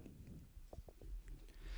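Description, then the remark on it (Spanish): Three people chewing food: soft chewing sounds with a few crisp bites and mouth noises, irregular and quiet, with no talking over them. “Ya aquí los tres estamos masticando, así que nadie va a hablar.”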